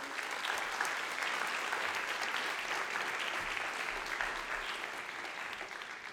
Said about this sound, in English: And then the real people this is about are all the, the parents and family members, so you all give them a round of applause, please.